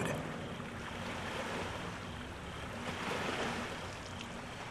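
Steady outdoor wash of water lapping and gentle surf along the shore of Lake Kawaguchi, with Mount Fuji in view, around 8 a.m. on a chilly morning, with wind buffeting the microphone and no voices, a continuous ambience at even loudness.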